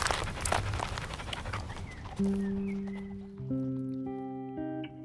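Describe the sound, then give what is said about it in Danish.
A little dog drinks water with quick, wet lapping splashes for about two seconds, then soft sustained musical notes take over and the lapping fades out. “Skal vi lige have noget vand, lille hund?”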